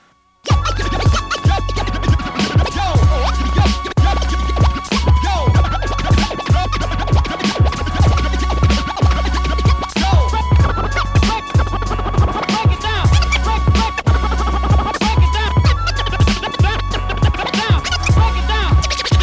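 DJ turntable scratching rides over a steady, loud beat, with quick rhythmic back-and-forth scrapes repeating throughout as the music opens, no voices present.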